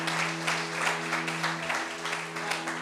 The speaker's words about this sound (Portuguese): Então, se Deus mandou você ir, vai, que Ele garante, aplaude ao Senhor mesmo, aleluia, aleluia